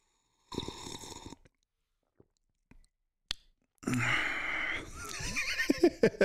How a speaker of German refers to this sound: Und los geht's. Ich nehme noch einen Schluck mit Schlürfgeräuschen, vielleicht klappt das.